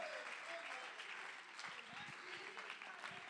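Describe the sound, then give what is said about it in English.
An audience at a morning church service claps steadily in praise, a dense wash of many hands blending into continuous applause, with a few murmuring voices underneath. “Come on, clap your hands a little bit longer this morning.”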